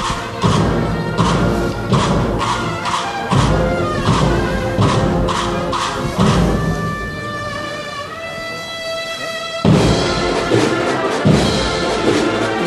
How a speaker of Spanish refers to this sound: Rompe la marcha, pero no el compás que se mantiene y estos aplausos. Mira, ahí se queda, ¿no? se ha parado Estos son los aplausos del público que ha ido mirándose que todavía está en pie, pues prácticamente hasta los que están con las sillas